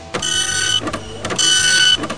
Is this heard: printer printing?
yes